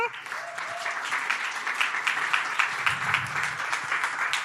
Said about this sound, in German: ich hoffe, ihr habt auch einen richtig fetten Applaus für sie heute Morgen.